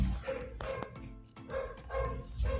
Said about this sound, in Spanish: Eh, amigos, ahorita están escuchando un concierto hermoso que está eh, dedicando eh, un perro de la colonia aquí, pero pues vamos a, a seguirle.